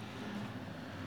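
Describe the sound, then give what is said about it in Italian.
A motorcycle engine drones steadily at a fairly even loudness, a low rumbling hum that holds for about a second with no voices. “No, era una moto.”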